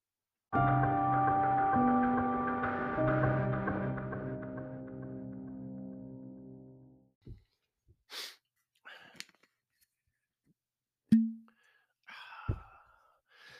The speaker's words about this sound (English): Sweet cork pop sound.